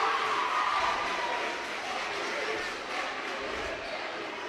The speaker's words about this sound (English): Student section for the Hornets, cheering them on quite well tonight.